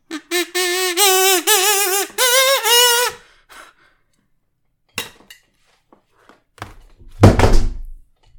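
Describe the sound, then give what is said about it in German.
A short warbling electronic melody plays, then a few scattered clicks, and finally a solid thunk as a mobile phone drops onto a hard surface. No one speaks. “Gut, das war mein Handy.”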